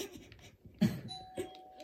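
A doorbell rings with two chiming strikes, the second following the first by about half a second, and a bright steady tone hangs on afterward. No one speaks.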